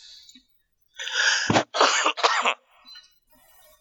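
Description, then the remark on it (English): A harsh cough from a person at the tail end of a cold bursts out in a short cluster of rough, breathy blasts, with a sharp jolt in the middle, then quiet with faint breathing. Nobody talks. “I also want to say that I'm on the tail end of a cold, so I apologise if I sound even more nasally than usual and cough occasionally.”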